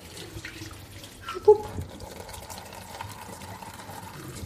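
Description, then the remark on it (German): Tea rinse water pours into a sink and gurgles down the drain, a steady wet splashing with a brief louder slosh early on, without any talking. “Und jetzt gießen wir das einfach unterrühren Rühren in den Ausguss.”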